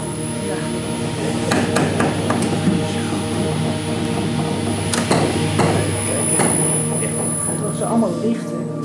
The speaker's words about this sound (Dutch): Als hij op zijn laptop een hemellichaam aanklikt, zetten de telescoop en de koepel zich in beweging, totdat het object in het vizier is.